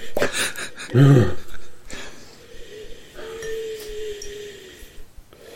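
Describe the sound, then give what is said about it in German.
A nose whistles on an inhale: a thin, steady mid-pitched tone lasting over a second, faint and slightly wavering. It follows a brief breathy snort-like burst earlier, with soft breathing noise throughout. “Deine Nase pfeift beim Einatmen.”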